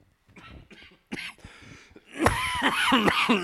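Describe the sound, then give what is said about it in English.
A man coughs in a few short, dry bursts, then breaks into a louder, wheezy, rasping hacking fit that drags on to the end. “He's been coughing for so long.”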